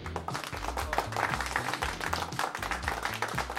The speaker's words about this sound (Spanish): ¿Cuánto aplauso? Nada, es muy famoso. Me autoidolato, me pongo aplausos yo solito.